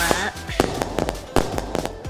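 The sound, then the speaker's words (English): Lunar New Year fireworks going off in a quick, irregular string of sharp cracking bangs, about eight or nine pops in two seconds, loud against a faint murmur of voices. “Well, some people throw parties and some people put up lanterns there's always fireworks.”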